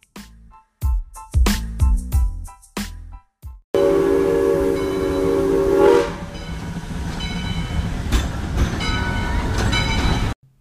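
A train whistle sounds in a series of short, loud blasts, then a longer sustained whistle over a heavy rumble, fading into the steady clatter and roar of a train rolling along.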